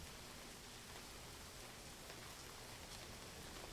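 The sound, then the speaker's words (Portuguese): Steady rain pours down on a rainy night in a continuous, even hiss, with faint patters of drops striking a surface; no voices, just the constant wash of rainfall throughout. “Era uma noite chuvosa.”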